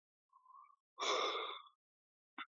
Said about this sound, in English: pardon me for yawning, man.